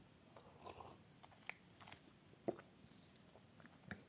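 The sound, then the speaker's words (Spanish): Someone quietly sips water from a glass, with soft wet mouth noises and a few sharp little clicks and a swallow spread across a few seconds, no talking. “Bueno, aquí tengo mi vaso de agua. Voy a tomar un sorbo.”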